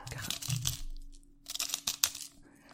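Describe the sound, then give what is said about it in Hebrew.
A salt shaker being shaken, giving gritty, crackly rattling in two bursts separated by a short pause, with a few sharper clicks near the end. “אוקיי, חברים, זה, זה המלחייה. זה הרעש, אני לא צוחקת.”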